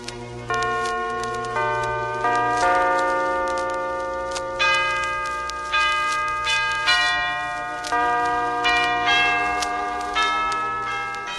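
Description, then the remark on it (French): The church bells of Notre-Dame de Paris ring out a Christmas carol melody, played from a vinyl record, one struck note after another, each ringing on and overlapping the next, loud and full, with no voices. “Donc, c'est simplement des cloches, comme les, des cloches de Notre-Dame de Paris, qui font des chansons de Noël.”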